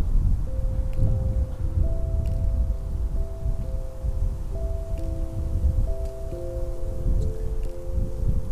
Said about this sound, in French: Je t'invite à entendre le vent qui berce les feuilles et les branches de l'arbre sous lequel je suis assis en ce moment.